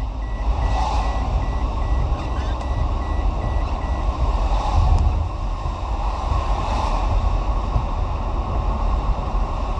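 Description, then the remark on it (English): A Toyota car's seatbelt warning beeps in a quick, steady series of high tones over constant engine and road rumble, stopping after a couple of seconds while the driving noise continues. “I don't care if you beep, I'm not putting on that seatbelt.”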